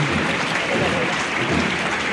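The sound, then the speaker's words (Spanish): A crowd applauds steadily as a procession march ends by the church of Santa Catalina, a dense, continuous wash of clapping that stays loud and even throughout, with a faint murmur of voices mixed in. “Se encuentra nuestro micrófono, termina la marcha y el aplauso también.”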